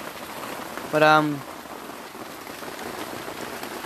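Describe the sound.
Steady rain patters on a tent, a soft continuous hiss throughout, briefly joined by a short spoken hesitation from someone.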